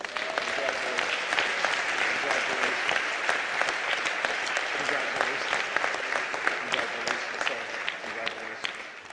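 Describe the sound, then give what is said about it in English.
Sustained applause from a church audience at St. Matthew's for new members, a dense wash of clapping with sharp individual claps popping out, steady and fairly loud for the full stretch without letting up. “Come on, let's give the Lord Jesus Christ one more round of applause for these individuals.”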